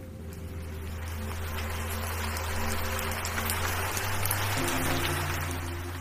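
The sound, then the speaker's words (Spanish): Steady rain hisses continuously throughout, a dense, even wash of falling drops, with a low droning hum underneath that shifts slightly in pitch near the end. No one speaks. “Qué linda es la lluvia.”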